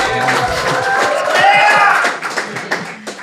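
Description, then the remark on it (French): A live audience applauds with dense, steady clapping mixed with crowd voices, then the applause thins out into a few scattered claps as it dies away. “le premier, il n'y a plus d'applaudissements à faire jusqu'à la fin.”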